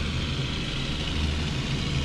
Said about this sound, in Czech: Teď no projíždí vlastně- tím labem, eh, to jsou ty obojživelný obrněný transportéry, akorát, že v hasičský podobě? No já myslím, že to jsou vojáci. To jsou hasiči, ne?